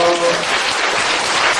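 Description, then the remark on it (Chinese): A crowd of students claps loudly and steadily, applauding themselves, a dense wash of many hands applauding at once with no voices standing out. “给自己热烈掌声鼓励一下。”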